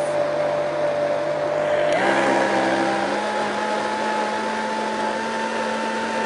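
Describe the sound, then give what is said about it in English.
A blender motor whirs loudly and steadily, mixing cheesecake batter with cocoa powder and raw egg, its pitch shifting abruptly about two seconds in as the load changes, then droning on at the new speed with no talking. “All right, let's take this off and look into the blender and see what's happening, just to make sure that our cocoa powder is worked in.”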